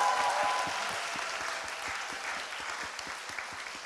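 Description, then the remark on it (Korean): An audience at the Korean talk show Kkoltong Show claps steadily for several seconds at the host's request, a dense, continuous wash of applause at moderate volume with no voices over it. “여러분 큰 박수 부탁드리겠습니다.”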